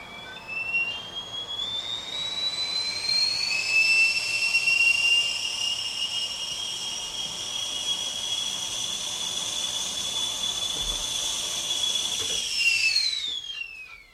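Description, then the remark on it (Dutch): A kettle whistles shrilly and steadily over a rushing hiss of steam, its pitch rising slightly as it starts, then holding for several seconds before cutting out abruptly near the end. “Zodra zo'n de fluitketel hoor ik ook wel vaker in opnames.”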